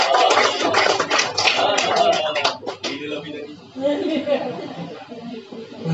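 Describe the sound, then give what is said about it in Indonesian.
A church audience claps hands for God during a sermon, a dense, loud burst of applause for the first few seconds, then it thins out into murmuring voices and scattered claps. “Tepuk tangan bagi Tuhan.”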